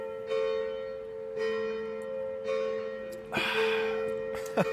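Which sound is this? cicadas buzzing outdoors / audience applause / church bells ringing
church bells ringing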